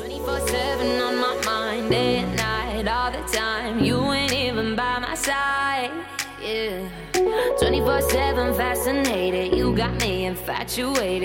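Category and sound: dance music track playing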